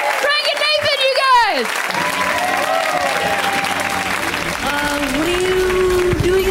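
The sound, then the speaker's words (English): A stand-up comedy show audience applauds steadily and loudly throughout, welcoming a comic on his first time on the show, a dense wash of clapping with shouted cheers and whoops rising over it, never letting up. “We give them a huge, warm round of applause, right?”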